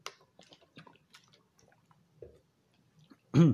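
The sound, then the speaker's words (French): Quiet mouth sounds of someone sipping and swallowing water, with small wet clicks and smacks, ending in a brief louder burst near the end. “Excusez, je vais prendre une gorgée d'eau.”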